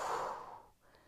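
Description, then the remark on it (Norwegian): A single breathy exhale during a guided breathing exercise, fairly loud at first, then fading away over under a second into quiet, with no talking. “Og pust ut.”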